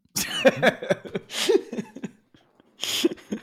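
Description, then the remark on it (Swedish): A person coughs repeatedly: a rough cluster of hacking coughs, then a louder single cough, a short pause, and one more forceful cough at the end. “ja, det, hostan sitter kvar som ni kanske hör.”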